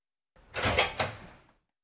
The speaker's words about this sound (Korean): 덜컥. 갑자기 현관문 열리는 소리에 엄마는 어머! 하고 소리쳤다.